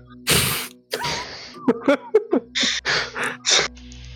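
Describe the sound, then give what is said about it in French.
Strange grunting made up of breathy gasps and short, forceful vocal bursts in an irregular string, fairly loud, with no speech, made by someone talking to trees. “Qu'est-ce que tu fais juste euh, Je t'entends euh, grogner étrangement.”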